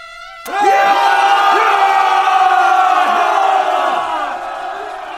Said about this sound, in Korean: 군사들은 모두 함성을 내질러서 외적무리의 길을 꺾어둬라!